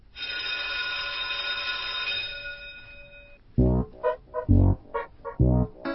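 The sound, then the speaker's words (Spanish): A school bell rings for about three and a half seconds, a bright, steady, sustained tone, then cuts off and is followed by several short, loud, low-pitched bursts. The bell is rung to officially start a new class. “que haga sonar una vez más el timbre para comenzar oficialmente una nueva clase de la escuelita de los sábados de Tomaidaca.”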